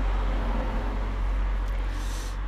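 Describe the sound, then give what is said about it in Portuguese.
A police car passes, heard as a steady, fairly loud low engine and road rumble that holds for the whole moment, with no one speaking. “Peço desculpa, vai passar aqui um carro da polícia.”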